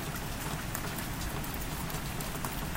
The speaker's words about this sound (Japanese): ああ雨か雨降ってきたから窓を閉めてくれない